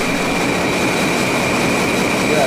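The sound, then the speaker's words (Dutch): A ship's engines rumble steadily in the engine room of a 188-metre-long, 26-metre-wide ship: a loud, unbroken mechanical roar with a hissing wash and a thin whine riding on top. No voices are heard. “De boot hoest roet op als bloed in duizend variaties ruis. Ik luister naar de hartkloppingen van dit drijvend, ijzeren fabriekseiland.”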